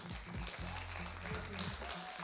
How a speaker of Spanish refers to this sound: que esto es radio en vivo, eh, que se está transmitiendo a través de Radio UNAM 96.1 de FM aquí en Adolfo Prieto 133 en la colonia del Valle y pues muy muy fuerte el aplauso